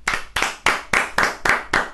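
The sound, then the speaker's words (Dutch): Steady rhythmic hand clapping, about seven crisp, bright claps in two seconds at an even pace, each with a short ringing tail, and no talking over it. “Zullen we even klappen?”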